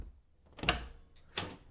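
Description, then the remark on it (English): A door on the second floor is opened: a sharp latch clunk with a brief creak, followed a moment later by a softer rattling knock, fairly quiet with no voices. “I opened the door, and there was Amanda Fisher, lying in bed”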